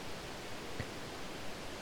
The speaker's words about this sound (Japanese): この音何か分かりますかね、え壮大な滝の前に今皆さんをお連れしておりまして、えー、これホワイトノイズと、え思われて切られてる方もいるかもしれませんが、えー、ナイアガラの滝をイメージした音を聞いております